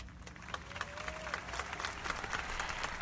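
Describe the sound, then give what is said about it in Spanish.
A crowd applauds at the Festival Internacional Cervantino, a dense wash of many hands clapping at a constant level throughout, with a faint tone gliding briefly in the background. “Muchos aplausos y mucha música también en el Festival Internacional Cervantino.”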